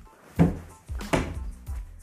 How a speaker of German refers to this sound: Mann, mein kleiner Bruder immer an der Tür klopfen.